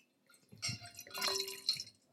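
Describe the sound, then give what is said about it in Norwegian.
Wine pours into a glass, a short gurgling, splashing stream lasting under two seconds with a faint ringing tone as the glass fills, fairly quiet and with no talking. “Jeg kan helle oppi deg.”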